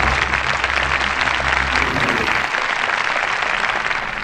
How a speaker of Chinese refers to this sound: 炮兵脱口秀即将登场，公的们、母的们，请鼓掌。